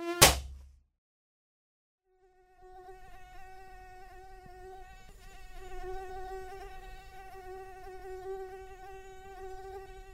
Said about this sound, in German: Was surrt denn da? Die Plage mit der Mücke.